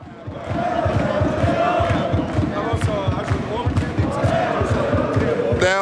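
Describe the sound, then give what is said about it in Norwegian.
About 100 to 150 Bodø/Glimt football supporters, still standing in the stadium some 20 minutes after a 1-0 loss to Poznan, chant the club's songs together, loud, with rhythmic massed voices and a steady beat of claps or stamps running throughout; no players are on the pitch. “Anslagsvis så står det 100, 150 stykker igjen her. Og eh, synger eh, sangene til Bodø-Glimt etter at vi har røket ut.”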